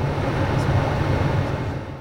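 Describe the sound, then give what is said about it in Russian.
A laminar flow cabinet with strong air draft in a laboratory, holding Petri dishes of mini-brain organoids, hums steadily, a constant low drone with a broad airy rush of fan noise layered over it, unchanging throughout. “Вы слышите, как гудит этот шкаф,”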